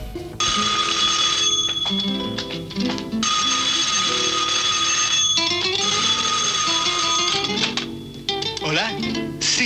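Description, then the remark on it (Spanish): A telephone rings in the Pérez García family's house, from the radio programme La casa de los Pérez García: a loud bell ringing in long metallic bursts separated by brief pauses, continuing for nearly ten seconds, with a low murmur of other sound underneath. “En la casa de los Pérez García siempre atienden el teléfono.”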